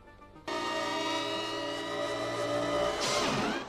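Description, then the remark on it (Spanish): Futuristic light-cycle motorbikes from a film's virtual-world action game kick in with a loud, sustained electronic whine, a steady harmonic drone that swoops into a sharp pitch sweep near the end as the bikes race past. No talking. “Durante su estancia en este mundo virtual, se enfrentará a variopintas situaciones en diversos juegos de acción, como las célebres motos de luz que acabarían convirtiéndose en el emblema de la película.”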